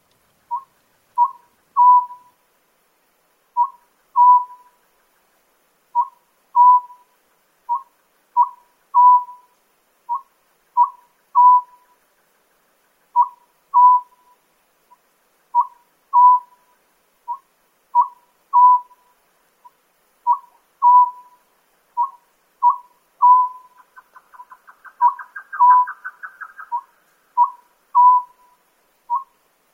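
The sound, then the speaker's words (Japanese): A Japanese scops owl in Nikko City calls over and over in steady short phrases of two or three clear mid-pitched hooting notes, with brief pauses between phrases, and a faint buzzy trill joins near the end. “朝の小鳥今朝は日光市のこの葉づくをお送りしました”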